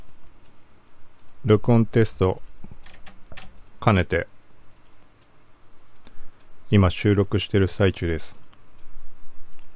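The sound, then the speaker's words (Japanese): Cicadas buzz outdoors in summer in a steady, high-pitched drone that never lets up, while a person speaks in short bursts over the top of it, recorded on a TASCAM DR-07X recorder. “蝉、風鈴、敢えての環境音「夏を感じる？」ポッドキャスト”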